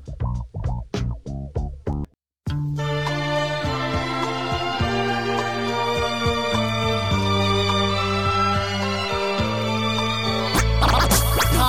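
A hip-hop track played on the radio show Bumbep opens with a quick run of rhythmic turntable scratches, drops out for a beat, then kicks into a loud, steady instrumental with heavy bass and no vocals.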